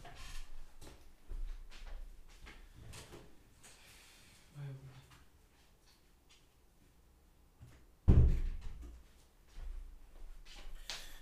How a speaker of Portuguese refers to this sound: só aqui um segundinho, tenho só que abrir a porta.